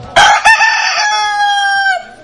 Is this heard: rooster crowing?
yes